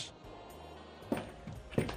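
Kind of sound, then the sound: animal, cat meowing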